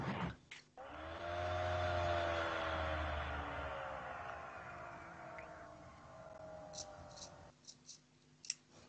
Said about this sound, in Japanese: これって掃除機の音かなんかですかうちじゃねえよ。いや、うちも無音のはずですよ。ああ、ごめんなさい。もしかしたらノートパソコンのああ、音かもしれないですね。